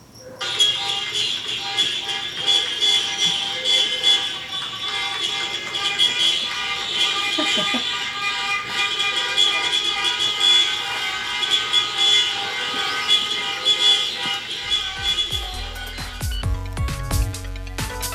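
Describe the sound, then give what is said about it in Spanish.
Car horns of a 4x4 blare together as applause closing the show Audicionarte, in a long, steady, high-pitched chorus of honking for about fifteen seconds, before cutting off into a brief burst of lower, rumbling sound. “Y estos son los aplausos del 4x4.”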